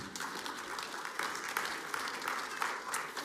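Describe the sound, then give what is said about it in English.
An audience in a church claps together, a dense, steady wash of many hands that holds at an even, moderate loudness for a few seconds with no talking. “I would clap for that if I was in your seat.”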